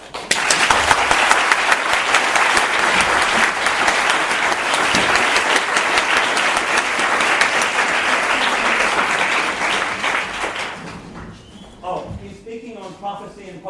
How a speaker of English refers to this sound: In any case, um, let's give him a, a huge round of applause.